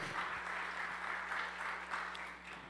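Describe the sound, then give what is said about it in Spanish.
A crowd applauds steadily, a dense wash of many hands clapping at an even, moderate loudness throughout, with no voices rising above it. “Dele un aplauso fuerte.”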